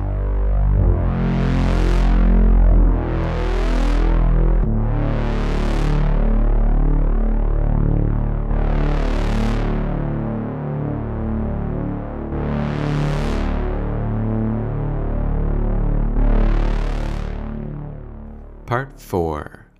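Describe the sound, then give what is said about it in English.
Swelling waves from a true binaural stereo synth in a song rise and fall roughly every few seconds over a thick, sustained distorted guitar bed, loud and continuous, with a brief glitchy burst near the end. “In this song, it contributes waves that melt on top of the guitar blasts.”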